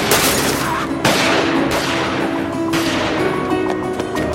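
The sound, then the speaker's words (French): Loud gunfire crackles through a dense, noisy scene during a brawl, with several sharp shots bursting out at irregular intervals over a constant roar, unrelenting. “a sorti un flingue.”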